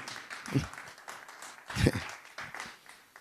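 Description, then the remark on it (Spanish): An audience applauds in praise of the Lord, a dense crowd clapping with two louder swells, voices faintly mixed in and a shouted exclamation rising above the claps. “¿Cuántos dan palmas de alabanza al Señor?”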